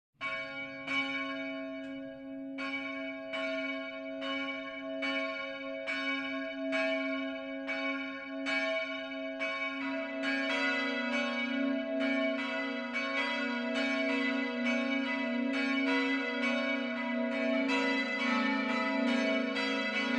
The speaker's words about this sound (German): Das Mittagsläuten kommt heute von der katholischen Marienkirche im mittelfränkischen Röttenbach.